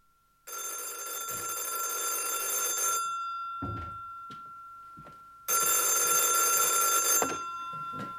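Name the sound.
telephone ringing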